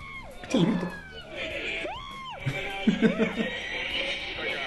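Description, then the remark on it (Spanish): An African-American man, a reporter being shown a projection, lets out several shrill, high-pitched screams that sound almost like a woman's, rising and falling in short bursts over a busy background of crowd noise and laughter. “No, pero el primer grito fue como de mujer.”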